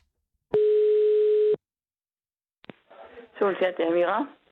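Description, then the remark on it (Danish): A single steady telephone ringing tone sounds for about a second on an outgoing call to a cohousing community in Odense, then silence, a click as the line is picked up, and a voice begins speaking. “da vi ringede direkte til Solens Hjerte, der holder til ved et øh, bofællesskab i Odense, så vil de egentlig ikke tale med os.”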